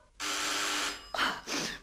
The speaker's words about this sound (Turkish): Bak, bak duyuyor musun? Kapı bu. Biri bizim zilimizi çalıyor